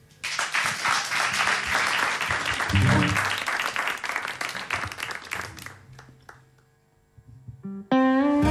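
A studio audience bursts into dense, steady applause during the live radio broadcast Radio Live, holding for several seconds, then thinning out and fading away before a sustained musical tone begins at the very end.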